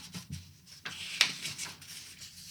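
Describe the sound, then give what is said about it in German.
Pages being leafed through, a few soft papery swishes and rustles with one sharper flick near the middle, fairly quiet and with no talking. “Hört ihr, hört ihr das Blättern?”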